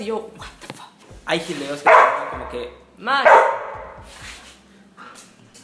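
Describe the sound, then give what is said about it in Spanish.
A dog barks loudly a few times, sharp bursts around the two- and three-second marks, while people talk over and between the barks. “Ese fue mi perro, amiguito.”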